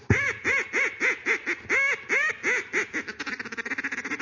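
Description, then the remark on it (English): A duck call blows a steady series of nasal quacks, about a dozen evenly spaced, then speeds into a rapid chattering run of shorter quacks at the end. Loud, no talking. “Phil Robertson is in the standing timber of the bayou, and he's duck hunting with a friend, and he's blowing duck.”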